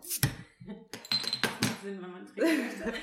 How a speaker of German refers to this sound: So, achso, ich mache erstmal jetzt die Flasche auf.